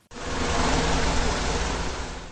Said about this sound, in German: Leise schnurrte das Forschermobil durch den Schnee.